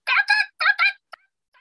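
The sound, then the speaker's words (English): A young rooster's rough, gargling attempt at a crow at 5:30 in the morning: four harsh, raspy bursts in quick succession, then a short click and a faint trailing squeak, with no talking. “he can't quite make a cockadoodle do yet. So he's just making these like he like gargles and like at 5:30 in the morning.”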